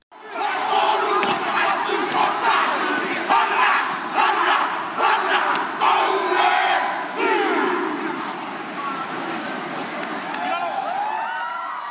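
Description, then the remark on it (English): A group chants a Maori haka, a traditional war cry and dance, at a commemoration of the Battle of Passchendaele. They chant in forceful unison, with loud rhythmic shouted phrases and bursts sustained for the full twelve seconds. “The commemoration included a passionate haka, a traditional Maori war cry and dance.”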